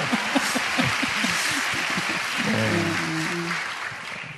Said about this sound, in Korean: 박수로.